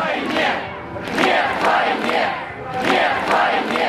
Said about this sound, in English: Eventually, they saw a crowd gather. The crowd started marching together, holding signs and chanting.